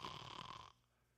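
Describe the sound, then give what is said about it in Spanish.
A man imitates his own single loud, rasping snore after falling asleep, a short throaty burst lasting well under a second before cutting off into quiet. “Hombre que está acá, a lo mejor tú has experimentado esto que yo he experimentado, que a lo mejor nuestro hijo tiene un poquito de fiebre o tiene algo que está viviendo y yo me toca dormirme y en dos minutos empiezo a roncar.”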